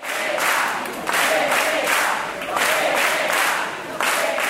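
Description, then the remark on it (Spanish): A large crowd of hundreds at a party campaign rally in a provisional tent in Ribeira chants the party's acronym in unison, repeating it rhythmically about every second and a half, loud and roaring, with scattered cheers and claps filling the gaps. “y tampoco canción de campaña, solo se corean las siglas del partido.”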